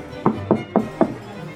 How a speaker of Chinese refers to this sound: 基顿和娜丽随着黑烟追到了树林的深处，他们提起最大的勇气上去敲门，